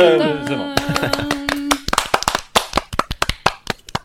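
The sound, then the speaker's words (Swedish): A small group applauds with quick, sharp hand claps that start sparse and become a denser burst, with a faint tonal voice-like hum at the beginning; the applause is edited in to celebrate the announced winner of a contest. “Du får, du får klippa in mer applåder där så att det låter lite bättre liksom.”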